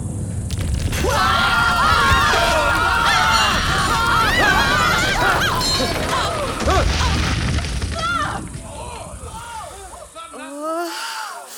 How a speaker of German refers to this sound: Was war das für eine Scheiße? Das war ein Erdbeben.